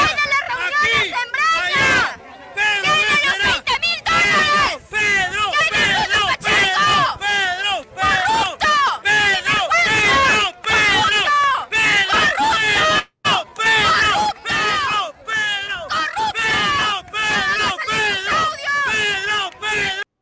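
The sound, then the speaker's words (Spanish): A dense protest crowd in Trujillo shouting and chanting together during the president's visit, loud and continuous, with overlapping voices and occasional sharp yells rising above the roar, recorded on a mobile phone with a slightly distorted quality. “Si usted cree que ese grito era de una persona que estaba parada ahí cerca al micrófono de ese celular y que por eso parece que en realidad no es tan grave, bueno, ve este otro video.”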